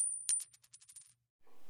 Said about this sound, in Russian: Все нейтрально. Подкидываем монетку и узнаем.